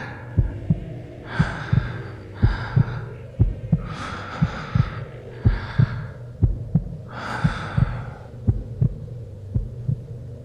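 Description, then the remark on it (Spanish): A person's own steady heartbeat thumps in paired beats about once a second, while heavy, agitated breaths rise and fall over it, amid silence, with no talking. “Escuché los latidos de mi corazón, mi respiración agitada, nada más.”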